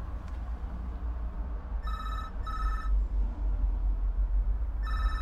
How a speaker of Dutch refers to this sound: Ja, neem nou even op, hij gaat toch over?